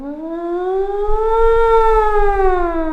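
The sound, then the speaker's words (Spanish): A loud school alarm siren wails continuously, its rich droning tone slowly rising in pitch and then easing back down, with a low rumble underneath and no voices. “Y hoy por hoy, ya en el colegio, a lo que me cuentan, ya no utilizan campanas, sino que ahora es por sonido, por una alarma o algo así.”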